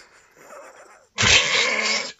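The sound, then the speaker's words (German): A person imitates a growling bear: a low, softer rumble first, then a sudden loud, raspy roar that lasts about a second before cutting off. “Mach mal den Bären.”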